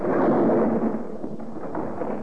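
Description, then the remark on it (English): A loud buzz bomb explosion roars and rumbles steadily for a couple of seconds, with a gunshot, fired at the precise moment the bomb exploded, buried in the blast. No voices can be heard. “Bell fired at the precise moment when the bomb exploded.”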